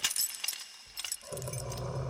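A short burst of metallic keys jangling and clinking as they are removed from a soldier's belt, quickly followed by a low, rough rumbling sound that continues to the end.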